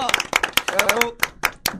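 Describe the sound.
Audience applause: a quick flurry of sharp, uneven hand claps that thins toward the end, with a cheering voice rising over the first half.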